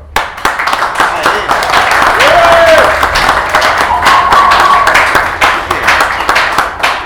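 An audience breaks into steady applause, many hands clapping in a dense, continuous patter for several seconds, with a couple of brief whistle-like cheers rising above it.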